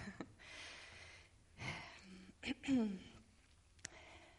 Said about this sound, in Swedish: Jag behöver bara andas lite grann så att jag har rösten med mig.